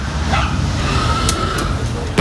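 Hunting dogs bark in short, scattered bursts during a wild boar hunt in France, near a ring road, over a steady outdoor rumble, with a few sharp yips cutting through the noise.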